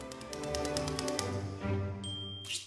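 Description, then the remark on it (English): Rapid mechanical typewriter keystrokes clatter in a quick burst, then pause before a bright, ringing bell chimes, all over a low musical hum in the background. “Because the arrival of the typewriter in the late 19th century presented enormous competition for handwriting.”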